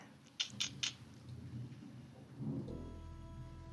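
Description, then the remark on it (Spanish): Rain falls steadily over a low rumble, with a few sharp crackling bursts early on, before a steady electronic hum with faint tones comes in partway through. “Nos despedimos poniendo el intro. El intro de salida. y con estas gotas de lluvia.”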